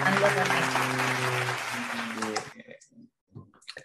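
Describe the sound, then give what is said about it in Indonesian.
A burst of dense, steady clapping with some voices mixed in, welcoming a guest star, loud at first and fading out after about two and a half seconds, followed by a person speaking. “please welcome tepuk tangan yang meriah dong untuk bintang tamu kita”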